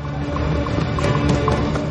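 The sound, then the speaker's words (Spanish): A horse gallops over a hard street as its rider chases people fleeing through the streets, its hooves striking in a quick, uneven rhythm amid a dense wash of busy background noise. Nobody speaks. “Ojeda los persigue a caballo.”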